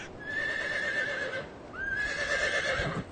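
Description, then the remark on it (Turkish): A horse beside a winter sleigh whinnies twice in quick succession, each call a loud, high, wavering neigh lasting over a second, with soft background noise and no talking. “gecelerini ıssız ormanlarda gezerek geçirir, kışın bunu kızakla yapardı.”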